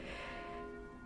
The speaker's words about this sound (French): L'épisode d'aujourd'hui commence en force avec les cloches de l'église